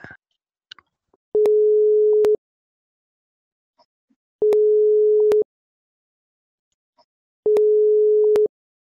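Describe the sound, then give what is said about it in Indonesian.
A phone's ringback tone plays while a call goes unanswered: three steady, clear one-second beeps at even intervals about three seconds apart, with near-silence between them and no voices. “Nggak diangkat ya, Mas?”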